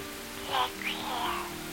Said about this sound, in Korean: 크게 말해 빗소리 때문에 안 들려